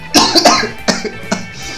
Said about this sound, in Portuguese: Eu tive um problema agora que eu me engasguei